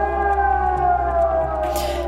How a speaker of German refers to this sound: Da sitzt man vor dem Radio und hört es und trotzdem erschreckt man sich zu Tode, als das Ding losgeht. Ähm, die Sirene hat bei uns erst 16 Minuten nach 11 äh, angefangen zu heulen.